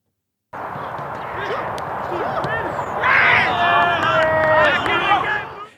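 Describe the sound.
Several young men shout and call out across an open field at football training, their voices rising into a burst of loud cheering and whooping about halfway through as a goal is scored, carrying on to the end.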